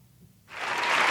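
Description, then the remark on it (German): A canned applause sound effect starts abruptly after a brief quiet moment, a dense crackle of many hands clapping that quickly swells and holds steady at a fairly loud level. “Ich habe den Applaus.”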